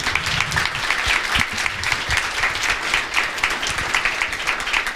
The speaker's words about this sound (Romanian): Mulțumesc, hai să aplaudăm uh, oamenii care au fost aici.